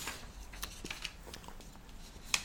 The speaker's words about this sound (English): Excuse me, I have to turn my page.